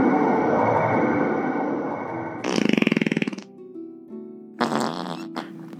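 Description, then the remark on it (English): A series of loud, comedic fart sound effects as a summoning circle is worked: a long sputtering blast, then a buzzy rippling one with rapid pulses, followed by shorter flatulent bursts and a tonal toot near the end. “Oh no, I just summoned Fart Boy over 55.”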